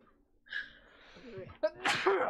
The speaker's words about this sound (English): Whoa, keep it down. I gotta just sneeze. Now they're coming.